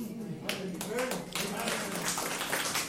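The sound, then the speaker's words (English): An audience claps for God, a dense, steady patter of many hands that holds at a fairly even loudness for the whole stretch, with faint voices murmuring underneath. “Ah, uh, you can clap God.”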